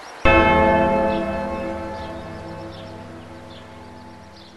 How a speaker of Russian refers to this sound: И еще все время колокола звонят, добавляют антуражу. В монастыре вот несколько раз звонили, пока мы там были. Мы решили, что, наверное, они они время отбивают.